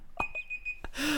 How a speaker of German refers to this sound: Oh, was piept da jetzt. bei dir? Das ist mein Wecker. Ich habe mir eine Erinnerung gemacht, dass wir hier äh, quasi gleich Schluss machen müssen.